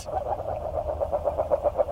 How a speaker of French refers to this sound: Et c'est donc la grenouille agile.